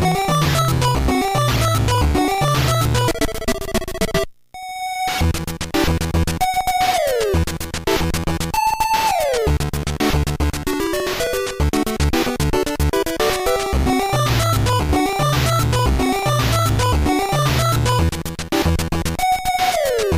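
The main theme of the NES video game Time Lord, composed in 1990: bright, buzzy square-wave chiptune melody over a bouncy bass line and clicky percussion, loud and steady, with a brief pause early on before the tune resumes.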